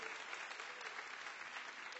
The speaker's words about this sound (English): Give the Lord a hand clap if you would.